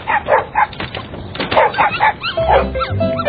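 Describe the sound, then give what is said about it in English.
A puppy, one of two puppies, yaps in quick, high-pitched barks, a rapid series of short yips repeating, ending with a slightly whiny, drawn-out bark. “Listen, that's one of them.”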